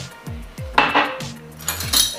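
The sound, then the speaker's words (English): A drinking glass being handled while making an Isha instant sanjeevani drink: a few bright clinks and knocks in an uneven rhythm, mixed with soft low thuds as it is set down and moved, with no talking. “i'll just show you how to make it so yes you take a glass and uh,”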